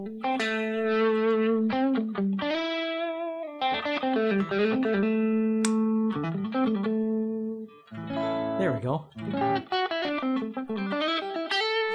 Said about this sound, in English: I'm going to change my guitar tone for this one.